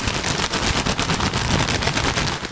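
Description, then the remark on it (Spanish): A bag of potato crisps being crumpled and handled as a demonstration with the software switched off: a loud, dense crackling of plastic with rapid sharp snaps running continuously for a couple of seconds, no voices. “Esa es la bolsa. Disculpad los ruidos, pero.”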